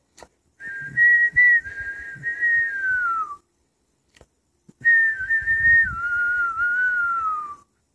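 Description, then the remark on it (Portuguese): Two long, sustained whistled phrases, each holding a steady, slightly wavering tone before gliding downward at the end, likely a person whistling to imitate a little bird, with a short silent gap between them. “Ele acordou, caminhou, e o passarinho assobiava.”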